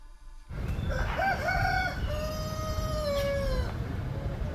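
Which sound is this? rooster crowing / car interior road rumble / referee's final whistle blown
rooster crowing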